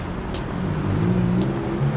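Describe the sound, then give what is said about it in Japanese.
A car engine rumbles steadily on a street at the Hiyoshibashi-minami traffic signal, a low continuous drone with brief hissy bursts of passing traffic, no voices. “あのブルンブルンの音でちょっとこう視線を集めるわけですから。”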